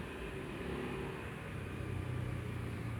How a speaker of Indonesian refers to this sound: dan jika kalian mendengar suara motor lewat seperti ini